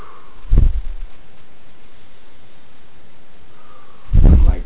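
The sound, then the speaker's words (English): A voice imitates heavy breathing: two loud, rough breaths, separated by a few seconds of quiet background hiss, with no words spoken. “breathing heavy like that because it was starting to get heavier for me to breathe.”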